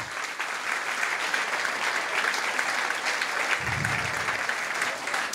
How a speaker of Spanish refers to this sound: ¿Cuántos pertenecen a ese primer grupo? Es un aplauso en esta mañana.